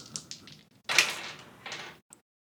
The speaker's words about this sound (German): Hier die Würfel, hört ihr sie?